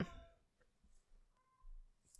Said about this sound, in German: Hier wird aber gerade richtiges Katzenkonzert gesungen.